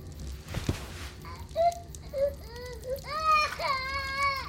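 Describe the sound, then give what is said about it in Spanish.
A sick, feverish baby cries in a series of short, thin, fretful wails that grow more insistent toward the end, over a low background rumble, with a brief knock near the start. “Llora, nene, en esta tu cuna.”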